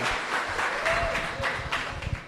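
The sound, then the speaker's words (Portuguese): An audience breaks into steady, dense applause, many hands clapping at once for a couple of seconds, with faint voices mixed into the noise. “Salva de palmas.”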